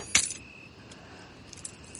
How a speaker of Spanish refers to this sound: He cerrado el coche, necesitas las llaves. Se las lanza.